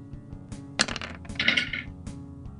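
Five six-sided dice (5d6) are rolled for a spell's damage in a tabletop game, clattering and tumbling across a hard surface in a quick burst of bright, rattling clicks that settle after a couple of seconds, with no one talking.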